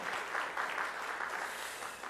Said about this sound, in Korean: 이하나 성도님 일어나시면 박수로 격려하겠습니다.